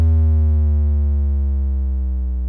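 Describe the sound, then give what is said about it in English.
A low sine-wave synth tone with no harmonics holds steady and loud, then glides smoothly and gradually downward in pitch over a couple of seconds, with no other sounds or voices around it. “the fundamental of most bouges are made by some sort of basic wave, a common choice being a sine wave, which has no harmonics. Then you give it a nice smooth pitch down.”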